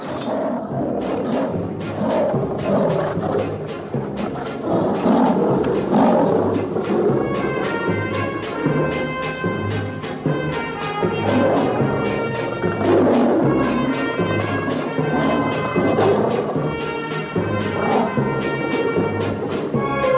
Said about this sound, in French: on entend toute une ribambelle de rugissements qui accompagne la révolte des fauves à la toute fin du chef-d'œuvre de Paul Grimaud.